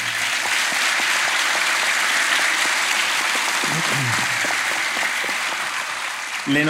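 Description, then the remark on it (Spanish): Sustained audience applause, a dense, steady wash of many hands clapping at an even loudness, with a brief voice briefly surfacing near the end. “Eh, un aplauso.”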